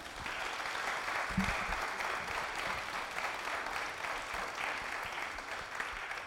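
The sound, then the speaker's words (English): An audience applauds a panel steadily for several seconds, a dense, even wash of many hands clapping at once, with no voices standing out. “Let's give our panel a hand clap.”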